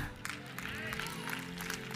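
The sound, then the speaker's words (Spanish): An audience applauds steadily, many hands clapping in a dense, continuous patter over sustained musical tones, with a voice faintly carrying through the noise. “Dale fuerte ese aplauso, siento su presencia.”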